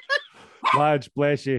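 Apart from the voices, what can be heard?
dog barking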